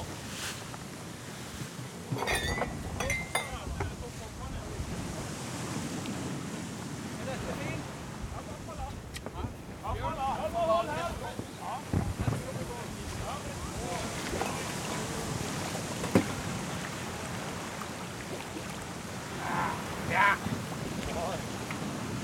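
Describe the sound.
A sailing cutter heels under sail, steered as high into the wind as possible where some current runs: steady wind roars across the microphone while water rushes and splashes along the hull, continuous, with a man's voice talking at times over it.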